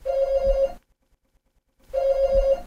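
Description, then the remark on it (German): A doorbell at the front door rings twice, two steady buzzing tones each lasting under a second with a clear pause between them, fairly loud with no voices. “Und da klingelt es ein bisschen. Das ist die Tür.”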